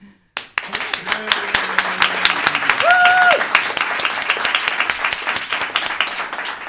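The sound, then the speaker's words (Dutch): An audience breaks into sustained applause, many hands clapping densely and steadily for several seconds, with a brief whistle and some vocal cheering rising from the crowd partway through. “Ik wil de zaal danken voor jullie eh, nou ja, stilte is misschien niet altijd even leuk. Maar nu mogen ze zeker zich laten, eh, leven laten horen.”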